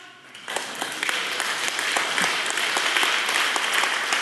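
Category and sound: crowd, audience clapping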